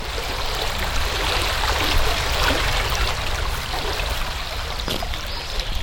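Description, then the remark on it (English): A continuous rush of flowing stream water, steady, with a bright, bubbling trickle running the whole time and no voices present. “And it does this kind of disconcerting thing with you see the water and you understand conceptually how far away that water is and how far away the sound effect should be but all of a sudden the sound is right around you.”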